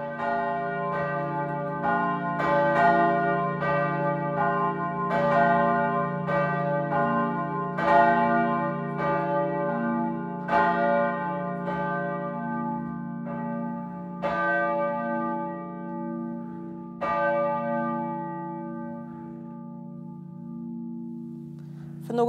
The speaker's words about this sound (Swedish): Helgmålsringning från Jukkasjärvi församling inför tredje söndagen i fastan